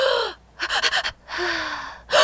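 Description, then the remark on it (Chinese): A voice imitates heavy panting: loud, raspy breaths with a long huff, a quick run of four short pants, another long drawn-out breath, then a fresh gasp starting at the end. “就是哇，我觉得对那个是超难的，然后一直喘气会头晕，你会缺氧。”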